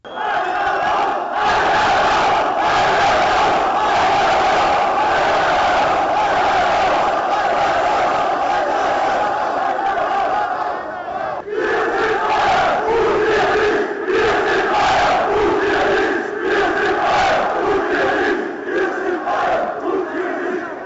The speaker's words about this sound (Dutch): heb je dat meegekregen met die boze Bayern supporters op de algemene ledenvergadering afgelopen week?